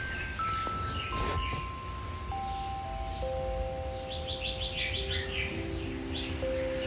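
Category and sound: bird, bird chirping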